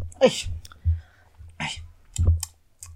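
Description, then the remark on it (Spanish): Three sharp, breathy bursts, each a sudden noisy blast, spaced about a second apart, a person sneezing three times in a row, with faint low thumps and clicks between them. “Díganme salud en los comentarios. Pongan salud.”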